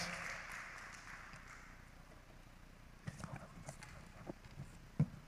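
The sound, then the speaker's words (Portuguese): An audience applauds once more, a second time in a row; the applause trails off into scattered, uneven claps, a dense wash of clapping fading over the first seconds before a few sharp isolated claps ring out near the end. “Vamos aplaudir mais uma vez.”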